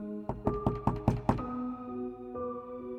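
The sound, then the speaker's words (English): Six heavy, forceful knocks pound on a door of a house in a forest in a quick, evenly spaced burst, loud, followed by a low sustained musical drone that lingers after the blows stop. “It was more forceful, almost like something was trying to break through the door.”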